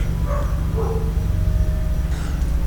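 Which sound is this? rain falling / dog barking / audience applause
dog barking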